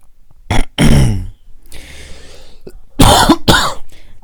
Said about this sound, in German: Boah, geh weg von dem Mikro, wenn du hustest oder so. Das fuckt mich auch richtig ab.